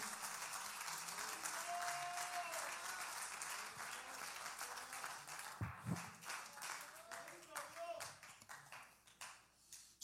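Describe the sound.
A crowd applauds loudly and steadily, a dense wash of clapping that thins out toward the end, with faint voices and a brief whistle-like tone mixed in.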